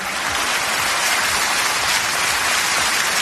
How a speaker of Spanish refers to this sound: Continuó ese largo aplauso, esa larga ovación cuando eh, mencionaba la palabra unidad para no generar división